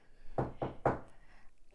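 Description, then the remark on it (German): Three quick, evenly spaced knocks on a hard surface, fairly loud, followed by a short quiet stretch with no talking. “ich wollte gerade sagen, macht keinen Sinn, macht keinen Sinn, dass du klopfst, du wurdest gerade gehackt.”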